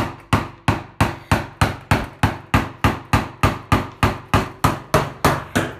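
Hammer blows drive a chisel into wood, cutting a mortise while building a wooden box: about nineteen sharp knocks in a steady, even rhythm, each ringing briefly before the next. No one speaks.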